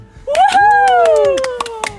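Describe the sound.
Scattered applause from a small number of hands, sharp uneven claps over about two seconds, while a voice holds a long, bright whooping cheer that rises then slowly sinks.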